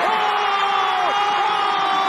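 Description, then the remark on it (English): A packed basketball arena crowd of Caledonia Gladiators fans roars and cheers wildly after David Sloan's buzzer-beater winning shot. It is a sustained, dense wall of noise, with loud whoops and shouts rising above the din throughout. “And the Caledonia Gladiators go wild.”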